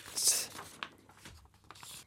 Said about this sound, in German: Da muss ich jetzt nochmal hier in meinen Papieren kramen, was wirklich viel, viel Material war.